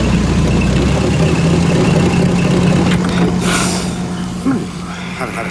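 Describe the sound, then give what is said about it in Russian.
A car engine idles with a steady low rumble and a constant hum after the car has pulled over at the roadside, a police car braking behind it, holding evenly before easing slightly quieter toward the end, with a brief soft clunk near the finish. “останавливает машину, сзади тормозит полицейский автомобиль.”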